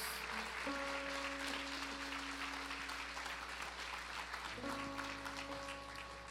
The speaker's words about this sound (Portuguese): Em nome do Senhor Jesus. Amém. Uma salva de palmas ao nosso Deus.